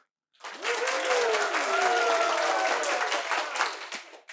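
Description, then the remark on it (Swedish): A live audience in the Katasalen hall of the ABF building in Stockholm, Sweden, bursts into sustained applause, dense clapping rising quickly and holding steady for about four seconds, with a few faint cheers and whoops mixed in before it tapers slightly. “Ehm, det här är ett avsnitt som spelas in i Katasalen eh, framför livepublik i ABF-huset i Stockholm. Eh, och så här låter den livepubliken.”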